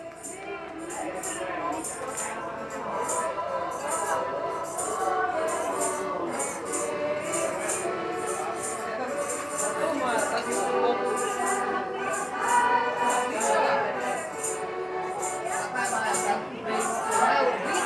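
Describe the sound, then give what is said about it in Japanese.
A group sings what seems to be a Slovenian folk song in a lively riverside restaurant in Maribor, Slovenia, voices blending at steady volume over constant crowd chatter, with a light rhythmic beat running throughout. “スロベニアのマリボルの川べりにあるレストランで収録したスロベニア民謡らしき歌です”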